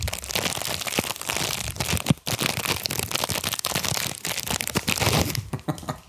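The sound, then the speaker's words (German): Loud crinkling of a plastic snack bag being pulled open, hard to open with one hand, a dense stream of crackles and rustles running nearly continuously, with a brief pause before the crumpling resumes. “Oh, ich kriege das, glaube ich, mit einer Hand nicht so auf einmal aufhält.”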